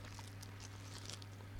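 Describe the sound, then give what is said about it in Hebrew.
Close, quiet crunching as someone bites into and chews a crisp lahmajun flatbread, a run of soft irregular crackles over a steady low hum, with no talking. “וואי, איזה רעש של הביס יש לך?”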